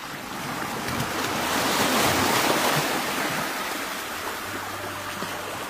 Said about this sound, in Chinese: 恶大王不能动了，可是海浪却没有平静下来